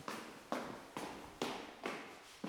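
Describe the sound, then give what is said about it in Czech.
Quick footsteps of a man running up a stairwell's flight of stairs, about six firm, evenly spaced thuds in a brisk rhythm, fairly loud, with no voices. “Zvědavý Pavel vyběhl po schodech nahoru, kde už dostihl jen klapnutí jedněch z pětice dveří.”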